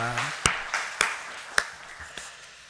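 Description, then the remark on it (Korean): Scattered hand claps from a group applauding the choir, four or five sharp, irregularly spaced slaps over a soft, hissy wash of lighter clapping, with a voice trailing off at the very start. “우리 고맙다 우리 성가대에게 예 박수 한번 네 고마워요.”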